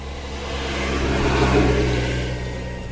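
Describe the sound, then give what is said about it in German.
A marshrutka minibus engine hums steadily, swelling louder as it accelerates through the middle and then easing off slightly, with a deep rumble underneath and no voices. “In die Dörfer, wo sonst überhaupt niemand hinfährt, fahren dann die Marschrutkas.”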